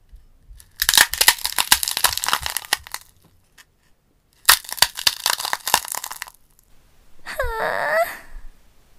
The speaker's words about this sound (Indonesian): Suara apa itu? Bayi komodo mendengar sesuatu. Rupanya cangkang telurnya mulai retak ia dapat melihat cahaya dari luar.